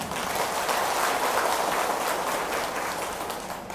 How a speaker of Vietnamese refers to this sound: nếu quý vị à, cảm thấy thực hiện được á, thì hãy dâng cho một tràng vỗ tay thật lớn nào